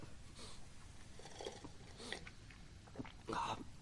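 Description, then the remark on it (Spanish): Quiet slurping as a man takes a sip of noodle soup from a container, with small wet mouth sounds and a longer, louder slurp near the end. “Él lo coge y le da un sorbo.”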